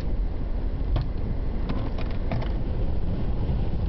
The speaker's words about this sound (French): Et ça souffle en tempête ici, c'est génial. Il y a des moments où on voit même plus la voiture qui est bloquée devant nous.